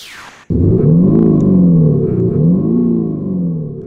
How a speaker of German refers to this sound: Ein nagelneuer Tesla, der an uns vorbeirauscht.